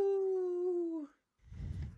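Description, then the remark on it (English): A person imitates a wolf howl: one steady, fairly loud tone held for about a second that slides down at the end, followed after a short pause by a noisy, rumbling burst. “Also joining us this week, our special guest, the Howlin' Honcho of the High North.”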